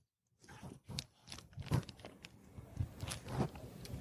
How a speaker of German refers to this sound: Ich versuche mal gerade Wasserflasche aufzumachen. Mhm.